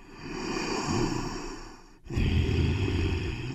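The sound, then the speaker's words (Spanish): Two long, forceful exhales in a breathing exercise, one right after the other, the second carrying a low voiced tone beneath the breathy rush. Fairly loud, with no talking. “Cuando tú no emites el sonido, la respiración no se da en su totalidad, no hay una relajación del cuerpo, pero además al cerebro también hay que estarlo trabajando, que está funcionando tu cuerpo de la mejor manera.”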